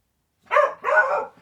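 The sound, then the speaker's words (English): A dog barks twice, a short sharp bark followed by a longer, drawn-out one, with no talking underneath. “I'm just going to shut the door so the dog can't right. be heard anymore.”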